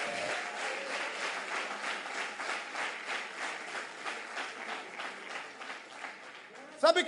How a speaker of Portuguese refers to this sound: Aleluias. Agora você pode aplaudir Jesus.